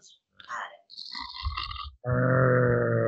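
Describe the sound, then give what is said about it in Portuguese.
A person vocally imitates snoring: a few breathy, scraping snorts build into a long, loud, rough snore that rumbles through the last second. “Então, eu ronquei na ida e na volta. É o famoso.”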